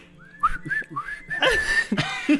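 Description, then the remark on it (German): A person whistles a short melody while operating a coffee machine, clear, with sliding pitched notes in a steady phrase over faint background clatter. “Es betätigt Kaffeemaschine und pfeift ….”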